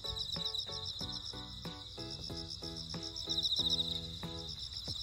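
Loud, continuous buzzing of cicadas fills the air, a steady high drone with pulsing, repeated calls layered over it and no break throughout. No one is speaking.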